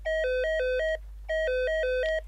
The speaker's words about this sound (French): Vers 14 heures, le téléphone du service sonne.